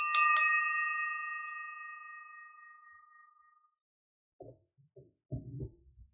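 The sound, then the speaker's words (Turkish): A Tibetan ritual bell is struck once, ringing out bright and clear with a long shimmering decay, followed by a few soft, faint knocks near the end. “İlginç Tibet Budizminde e, sadece Çanla ve Vajrayla ve çeşitli el hareketleriyle biraz daha aktif meditasyonlar var.”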